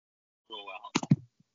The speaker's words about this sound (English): I set my phone on my keyboard